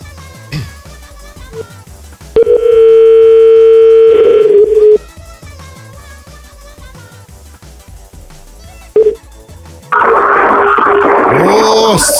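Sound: telephone dial tone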